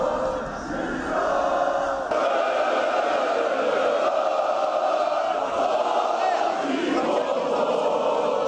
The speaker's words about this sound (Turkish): Meşaleler yakıp tezahüratlar yapan taraftarlar oyunculara ve teknik heyete sevgi gösterisinde bulundu. Galatasaraylıların galibiyet coşkusu gece geç saatlere kadar sürdü.